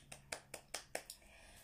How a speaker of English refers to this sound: Can we clap hands?